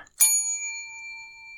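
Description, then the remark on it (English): A single bright bell strike, used as a penalty signal, rings out sharply, then its clear metallic tone lingers and slowly fades with a steady, shimmering sustain. No voices accompany it. “To help me control my rowdy panel of recidivists and reprobates, I will employ what I have called the inappropriate bell. An example of this would be.”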